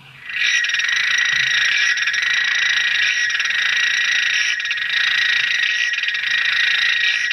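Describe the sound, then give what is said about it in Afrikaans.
An African clawed frog's clicking call, made underwater by cartilage rods at the larynx struck together by muscle action: a rapid, buzzing run of clicks that holds steady and fairly loud for about seven seconds, heard on its own with no voices. “Ek het nou die plat Anna se se roep hierso opgeneem.”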